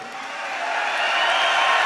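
At an agribusiness event, a large crowd cheers and roars loudly in reaction to Bolsonaro speaking about Lula. It is a dense, continuous wash of voices that swells slightly louder over the short stretch, with no single speaker standing out.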